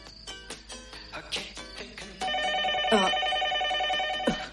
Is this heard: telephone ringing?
yes